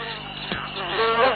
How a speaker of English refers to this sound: These pesky mosquitoes are eating me alive. Fishes are bird food, sandwiches are people food, and we're mosquito food.